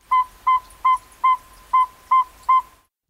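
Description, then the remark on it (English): A northern saw-whet owl's advertising call with its prelude: seven clear, whistled toots at a steady mid pitch, evenly spaced about a third of a second apart, loud against a quiet background. “Some give a prelude to their advertising call.”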